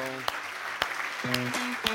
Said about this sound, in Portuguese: Amém e amém. Aplauda o Senhor que Ele merece